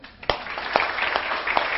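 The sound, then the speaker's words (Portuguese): An audience breaks into steady applause for a woman being honoured: a dense, crackling wash of many hands clapping at once, with a few sharper individual claps poking out. It holds at a fairly even level throughout. “Eu queria uma salva de palmas para essa mulher.”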